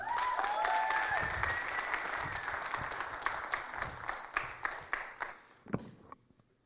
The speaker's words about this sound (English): So, without further ado, um, let's give it up to Carlos.